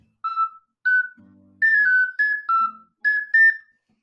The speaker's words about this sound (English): Ooh. Is that a piccolo? Or some, or like a flute or some some variety? Ah, it doesn't go lower. No, it's an ocarina.